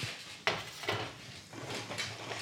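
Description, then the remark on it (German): A pan of schnitzels frying in hot fat is moved steadily, scraping and knocking against a stovetop in a few short pushes, with a steady sizzle of frying underneath and no talking. “Und dann legt man die einfach ganz vorsichtig da rein, die Schnitzel, und schaut halt, dass die da schön im Fett schwimmen und schaut, dass man stetig das ein bisschen bewegt, die Pfanne.”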